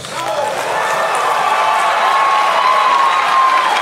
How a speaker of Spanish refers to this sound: Los diputados oficialistas y acólitos se pusieron de pie para aplaudir.